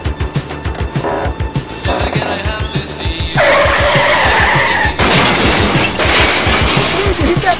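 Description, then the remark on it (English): A motorcycle rider is knocked down by a car door swung open by the car's driver: loud engine roar with rapid thudding impacts, then a long, harsh tire skid and screech carrying on to the end. “You knocked that guy down.”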